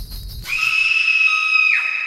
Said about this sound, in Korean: 찢어질 듯한 여자의 비명 소리가 집 전체를 뒤흔드는 거예